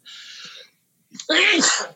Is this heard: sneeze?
yes